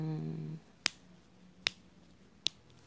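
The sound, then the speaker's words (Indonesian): Three crisp finger snaps, evenly spaced, each a sharp bright click against a quiet background, after a brief low hum at the start. “ya itu suara jari gue”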